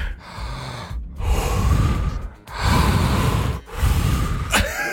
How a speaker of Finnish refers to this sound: Ha- haetaan sama rytmi hengittämiseen. Sama kun sä puhalat sisään, mä vedän henkeä.